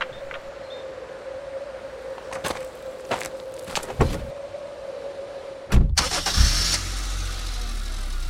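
A car, just filled up with Infinia fuel, has its engine crank with a few clicking, whirring bursts over a steady hum, then roar to life at once and settle into a loud, rumbling idle.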